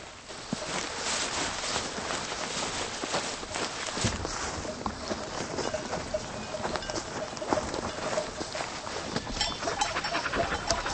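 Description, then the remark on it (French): Border collie sheepdogs pant hard and fast while herding ewes, a steady breathy rhythm over rustling movement and scattered footsteps, continuing without a break for the whole stretch. “Ça, ce sont des, des, des bordeurs Oui, oui.”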